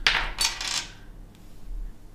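A die is rolled and clatters across a hard tabletop, three or four quick bright knocks within the first second, then it settles and everything goes quiet, with no talking.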